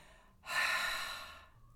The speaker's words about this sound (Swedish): Andas, man kan alltid andas ut lite.